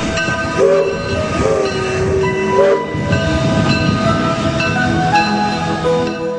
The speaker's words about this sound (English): The Polar Express let out a loud blast from its whistle and sped away.